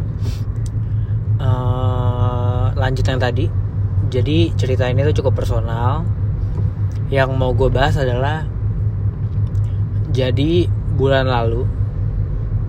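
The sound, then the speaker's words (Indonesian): Steady low engine rumble fills the inside of a moving car, a constant droning hum throughout, with a man talking over it as he drives. “gue sambil nyetir mungkin suaranya nggak begitu HD juga”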